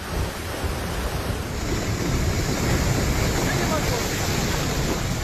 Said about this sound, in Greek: Φούσκωσε τώρα μαξερόλακα στο Βελβεντό Κοζάνη και κατεβαίνει με ορμή μαζί με τόνου λάσπη.